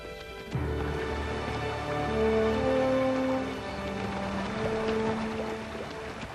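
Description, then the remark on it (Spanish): A steady rush of fast, high-flowing river water runs continuously, a dense wash of noise with sustained musical tones layered over it; no one speaks. “El agua es demasiado caudalosa.”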